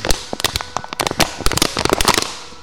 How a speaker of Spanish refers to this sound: El viento soplaba. Las ramas de los árboles crujían.